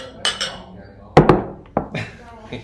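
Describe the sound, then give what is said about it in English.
Pint glasses clink together in a cheers toast: a sharp double clink, then another a moment later, with faint voices murmuring in the background. “my pint glass is empty. Geoff's pint glass is empty”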